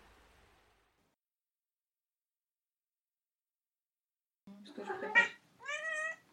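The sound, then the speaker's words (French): A cat meows twice, a short rough cry followed by a longer, rising tonal meow, after several seconds of near silence with faint noise at the start. “Bah, on est accompagné d'un chat. Hein euh, qui parle. Qui parle un peu.”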